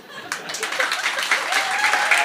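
Audience applause swells in after a brief quiet start, a dense, steady wash of many hands clapping at a fairly loud level, with a few faint voices mixed into the crowd noise.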